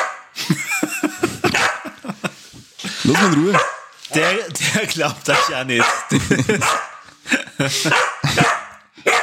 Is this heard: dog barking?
yes